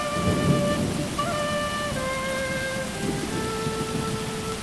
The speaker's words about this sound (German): Als schließlich das Gewitter losgeht, sind wir wieder in Huaraz und kurieren unsere Kopfschmerzen aus.